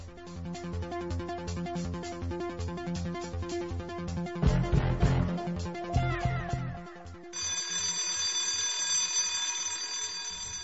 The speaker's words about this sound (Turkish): Birinci düdük çaldı. Kalksana be! Düdüğü duymadın mı dostum kalk hadi.